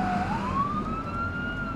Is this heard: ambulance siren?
yes